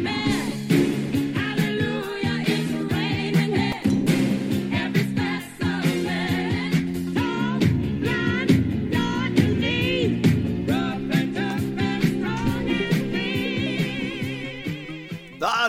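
An upbeat disco pop song plays loud and full on the SEN Track radio show Saturdays in the Gong, with a steady driving beat, sustained synth and brass-like chords, and a belting vocal melody running throughout, no speech over it.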